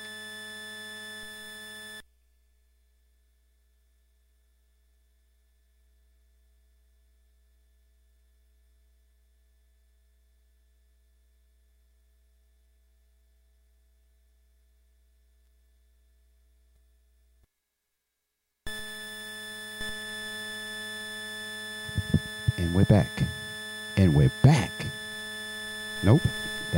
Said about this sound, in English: So, with that being said, please allow me maybe 10 seconds to try to fix this hissing.